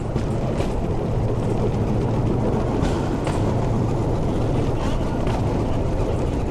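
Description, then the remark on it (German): A two-axle diesel rail draisine, its small motor started by a rope pull, rattles steadily at about 20 km/h over old narrow-gauge tracks on a tourist ride, a continuous low engine rumble with faint rhythmic clicks of wheels on rail joints at regular intervals. “Und dann geht's mit 20 Kilometer pro Stunde über die Schmalspurschienen aus längst vergangener Zeit.”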